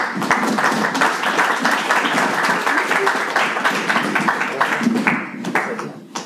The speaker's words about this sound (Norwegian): Ja. Applaus.